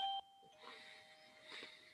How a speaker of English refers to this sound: who's that knocking at the door? Someone's ringing the bell.